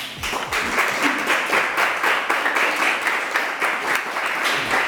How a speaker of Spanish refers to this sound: Dame un aplauso al Señor.